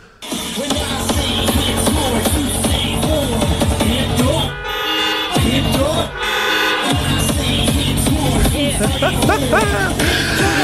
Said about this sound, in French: Et en place, les gens, en place de crier, tout le monde klaxonne de partout, les fenêtres fermées, tout le monde est dans leur voiture, tu vois les autos qui shake d'un bord et de l'autre.